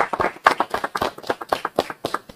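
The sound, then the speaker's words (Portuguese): A small group claps their hands in a quick, steady burst of applause for a cook, the sharp claps repeating rapidly for a couple of seconds with no one talking. “Gente, gente, por favor, não, mais, mais uma vez aplausos”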